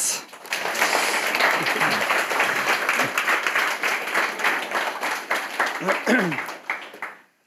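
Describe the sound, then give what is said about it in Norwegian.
A crowd applauds warmly for about seven seconds to welcome a guest at the ninth edition of the Synopsis interview series, a dense steady patter of many hands with a few whoops and voices mixed in, before the clapping quickly dies away. “Gjerne en varm applaus.”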